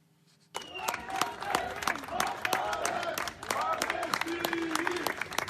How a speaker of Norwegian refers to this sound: Ungdommer går på en rekke i mørket med fakkel fakler i den ene hånden, et vedtegn i den andre, til applaus fra dem de går forbi. Det er et fakkeltog til stedet der bomben eksploderte, der 32 av deres venner ble drept i løpet av et øyeblikk.